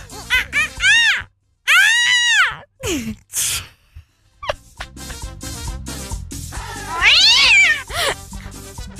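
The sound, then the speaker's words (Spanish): An angry monkey screeches in a series of loud, shrill, wavering cries, some short and choppy, others drawn out, rising and falling. “Eso es un mono enojado también”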